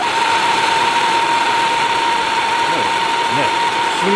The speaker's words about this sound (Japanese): 次にね、ちょっと強力なのは、ガストーチ。